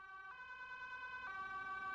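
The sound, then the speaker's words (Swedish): A loud ambulance siren holding a steady two-tone wail that shifts pitch twice over the two seconds, with low road rumble underneath and no voices. “När ambulansen kommer fram till sjukhuset har du förlorat mycket blod.”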